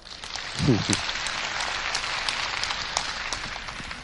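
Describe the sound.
An audience applauds steadily for about four seconds, a dense, even crackle of many hands clapping, with a brief murmur of a voice near the start, after the speaker asks those who now fully understand to show it with applause.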